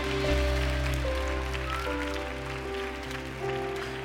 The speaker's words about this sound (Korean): 여러분 이분들께 감사와 함께 무엇보다도 하나님께서 놀라운 이 모든 일들을 계획하여 주심에 대해서 감사와 영광에 큰 박수 올려드립시다.